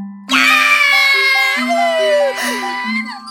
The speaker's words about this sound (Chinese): 两个小丑听完都开心的尖叫了。